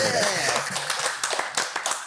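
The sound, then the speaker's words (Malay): A crowd claps and applauds steadily, a dense, crackling patter of many hands that stays loud for a couple of seconds, with voices talking over it. “Kalau gitu apa kata kalau kita bagi tepukan yang paling nombor 1.”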